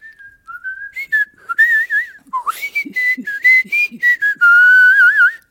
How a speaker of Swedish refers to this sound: Men eh, kan du fortfarande vissla? Vissla, ja. Ja.